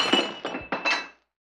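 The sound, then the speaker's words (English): A glass vase in a palace shatters: several quick, bright crashing impacts with a ringing glassy tone, tumbling over about a second before falling silent. “Ooh, look at that beautiful glass vase.”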